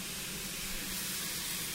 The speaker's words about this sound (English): Somebody just making sure that the clips are properly fastened for the steam heating. Hopefully that will reduce the amount of steam that they're losing.